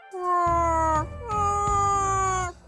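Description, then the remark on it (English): A person imitates a whale call: two long, drawn-out wailing moans, each held for about a second with a steady, rich tone, and a short pause between them. No other talking. “I'm saying in Whale, let's do this show.”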